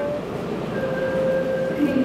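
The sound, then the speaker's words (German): A steady rumble of a subway train in motion on a long ride of over 15 stations out of the city, with low rolling noise and faint tonal whines from the motors, heard from inside the car; indistinct voices murmur faintly in the background. “Mit der U-Bahn geht's dann weit raus.”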